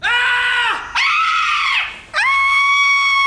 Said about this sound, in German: Zalando, schrei vor Glück!